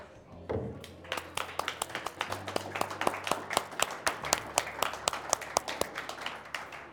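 A round of applause: a crowd claps steadily for several seconds, sharp overlapping hand claps forming a lively, even patter over a low background hum.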